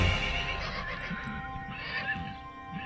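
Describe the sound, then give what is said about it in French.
A horse, Bucephalus, being tamed by the 13-year-old Alexander the Great in 343 BC, neighs in a long, shrill whinny with a trembling, wavering pitch, loud, alongside faint low thuds that could be hooves. No voices. “En 343 avant Jésus-Christ, il n'a que 13 ans quand il dompte le cheval bucéphale”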